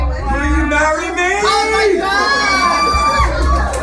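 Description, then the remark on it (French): A loud crowd of dozens of party guests in evening wear erupts in excited cheering and high-pitched shrieks as a man kneels to propose marriage, many voices overlapping in a sustained burst of celebration without clear words, filmed on phones. “Plusieurs personnes ont filmé la scène que vous allez entendre avec leur téléphone.”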